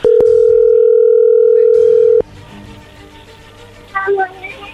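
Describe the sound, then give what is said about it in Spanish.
A phone line rings on an outgoing call: one loud, steady, mid-pitched ringback tone lasting about two seconds, then it cuts off to quiet background with a faint, brief voice near the end. “A ver, ya entró ahí la llamada, no hagan ruido, por favor.”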